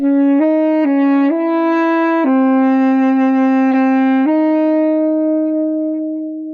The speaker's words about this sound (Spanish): A continuación escucharemos Decisiones en Saxofón, una obra del 2006 para saxofón tenor solo del compositor mexicano José Gerardo Suárez, nacido en 1962.